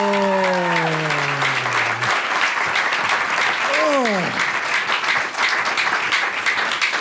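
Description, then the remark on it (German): Loud, sustained applause from a large audience at the Alte Feuerwache in Mannheim fills the whole clip, with dense clapping throughout; a man's voice briefly exclaims over it near the start and again midway. “Oh, der auch nochmal Applaus. Oh. Brandet ihn richtig.”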